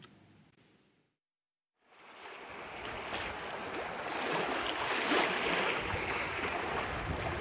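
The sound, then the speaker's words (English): After a brief silence, a boat's steady engine rumble and water wash rise and hold, a broad continuous churn as the boat slowly heads out on a still, flat ocean just before dawn, with no voices. “It's just before dawn as I slowly make my way out it's still, and the ocean is flat.”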